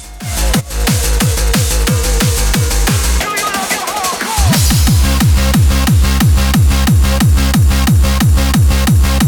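Fast, loud happy hardcore bootleg track with pounding four-on-the-floor kicks and bright synths, briefly dropping out into a sweeping breakdown before the driving beat slams back in.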